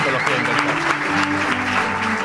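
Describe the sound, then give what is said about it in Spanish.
An audience claps in a dense, steady wash of applause that stays loud and even throughout, with voices faintly mixed in underneath. “Ahora no podéis aplaudir si no queréis, porque voy a decir, y un servidor,”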